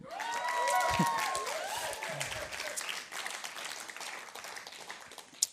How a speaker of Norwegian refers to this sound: Nå kan dere klappe.